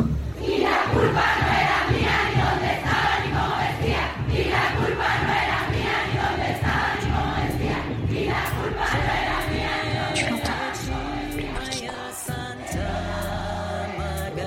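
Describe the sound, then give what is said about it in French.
A large crowd of protesting women roars and chants in unison, a loud, dense, sustained wall of voices, with shouts rising above the steady collective din. “tu l'entends La gronde des femmes”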